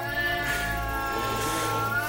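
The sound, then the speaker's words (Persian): A female cat's drawn-out, wailing meow, a steady harmonic yowl that holds for a couple of seconds, loud, with no talking. “ناله های می کشید گربه های نر ناله هایش را شنیدند از اطراف او را استقبال کردند”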